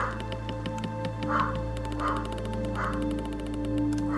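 Dogs bark in a steady series of three or four evenly spaced woofs, moderately loud, over a constant low hum with no talking.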